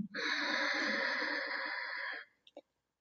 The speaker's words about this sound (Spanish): Vas a inhalar expandiendo tu abdomen y exhalar contrayendo el punto del ombligo hacia la columna. Esa es la respiración simple. Inhala largo y profundo.